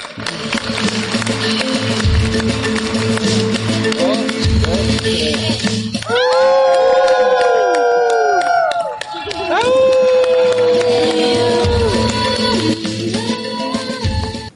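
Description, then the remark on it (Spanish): A large audience at a ceremony applauds and cheers in a steady, dense roar after a speech dedicating a film, with sustained musical tones swelling over the crowd noise midway before the clapping carries on. “Bueno, bravo. Yo también aplaudo desde aquí.”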